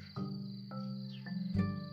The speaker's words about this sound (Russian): сверчки. Я даже не знаю, как эти насекомые называют цикады.